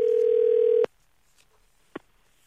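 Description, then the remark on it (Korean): A steady, loud telephone ringback tone, as a call is placed to a listener, hums for under a second, then cuts off abruptly with a click; after a short quiet gap, a second faint click sounds, with no talking. “한번 전화 한번 걸어보겠습니다.”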